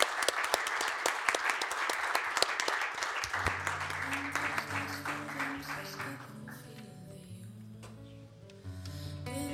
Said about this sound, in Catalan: Així que moltes gràcies. Un aplaudiment, per favor. Gràcies a vosaltres.